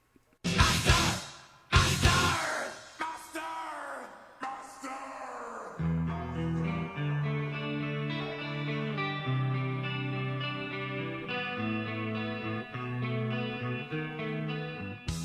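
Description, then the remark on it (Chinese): A loud final note of a song is echoed by a stereo delay, repeating about four times at a steady rhythm with its pitch gradually lowering, before sustained melodic music with stepping notes carries on. “OK，我们能够听到它最后结尾的这一声 master 呢，是加了一个立体声的 delay。”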